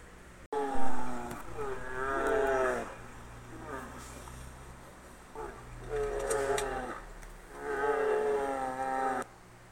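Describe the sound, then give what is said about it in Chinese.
A voice imitates a bear's low, angry growl in three rough, drawn-out bursts with a steady rumble underneath, loud and rasping, each surge swelling and fading. “熊熊好生气，他发出一阵低吼声。”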